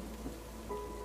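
Rain falls steadily in a soft, continuous hiss, fairly quiet and even throughout, with a faint low rumble underneath and no voices.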